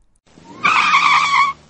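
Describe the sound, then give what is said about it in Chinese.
A small black truck brakes suddenly and its tires let out a loud, high skidding screech that holds steady for about a second before cutting off, preceded by a low engine rumble. “黑色小卡车。突然来了个急刹车，”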